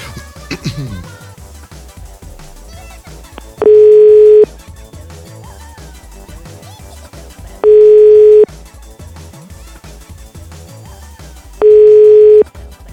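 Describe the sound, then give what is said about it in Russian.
A telephone dial tone of an outgoing call sounds three times as steady, loud, evenly spaced beeps about four seconds apart, each lasting roughly a second, over a busy murmur of background sound. “Ну, если он сейчас звонит Владику, то, наверное, не бессмысленно.”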